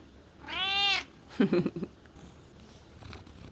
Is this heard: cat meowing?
yes